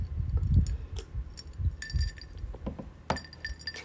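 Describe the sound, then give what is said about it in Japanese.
Ice cubes clink and rattle against a glass of iced muscat tea in a few bright bursts, with soft low handling rumble between them and no talking. “あもうなんか夏っていうことにテンション上がってちょっとマスカットティーなんか入れてねアイスティーにして飲みながらやってるんですけどそう丁寧な暮らしって感じでしょ”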